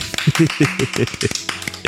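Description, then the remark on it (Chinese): Quick, steady hand clapping, about a dozen sharp claps in under two seconds, with a voice cheering or talking underneath; a standing ovation to wish a singer happy birthday. “让我们祝她生日快乐！先，起立鼓掌。”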